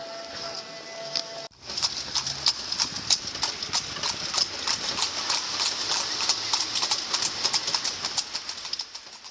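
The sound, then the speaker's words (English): A horse-drawn carriage rolls along with a steady, brisk clip-clop of hooves, the even rhythm continuing throughout over faint outdoor ambience and a few bird calls. “But what I really liked there was to take the carriage. We don't have carriage in Paris, and it's a pity, you know.”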